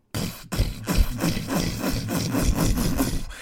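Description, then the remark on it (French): A voice imitates cages creaking open: a steady run of rough, grating scrapes, about a dozen rhythmic strokes, loud, with no talking. “Et là, c'est des cages qui sont en train de s'ouvrir.”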